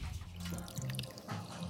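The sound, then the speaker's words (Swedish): Soda water being poured to top a strained drink in a glass with ice, a steady trickling splash with bright fizzy crackles on top, running continuously for under two seconds at a moderate level with no voices. “Han silar ner drinken i ett glas med is och toppar med lite sodavatten.”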